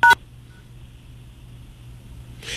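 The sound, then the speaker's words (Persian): A single short, loud phone keypad beep, a dual-tone DTMF press accidentally triggered by a caller's face or ear touching the phone buttons, sounds at the start, followed by a quiet low hum of line noise and a faint rustle at the end. “عزیزم شما یه جایی بدنتون صورتتون گوشتون میخوره به بستان دکمه های خب، تلفن آره و لطفا مواظب باشی”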